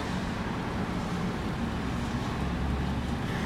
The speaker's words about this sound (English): Mostly all I hear is the traffic. The cars make a hell of a lot of noise, don't they?